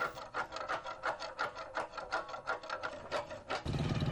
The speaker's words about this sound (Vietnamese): tiếng đục đẽo tiếng bịch trống tiếng thổi trống vang lên rộn ràng khắp một vùng quê.